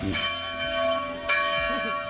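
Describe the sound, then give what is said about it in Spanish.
A church bell rings out loudly with a rich, sustained metallic tone, two strikes blending into a lingering shimmer, with faint murmuring voices underneath. “puesto la campana y todo para que Las campañas no, campanas, las campanas al vuelo, las campañas son otra cosa.”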